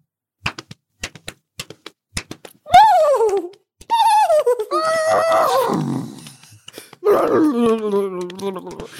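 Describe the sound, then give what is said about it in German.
About two seconds of quick, sharp hand claps and slaps on the thighs in a loose galloping rhythm, fairly loud, imitating a galloping horse's hooves, then drawn-out, wailing voices take over. “Trick ist es, dass man klatscht und dann so auf die Oberschenkel haut. Und dann klingt es so ein bisschen, als würde man, als würde ein Pferd galoppieren.”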